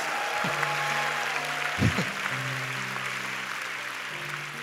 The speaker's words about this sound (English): Give all the coordinators a big round of applause.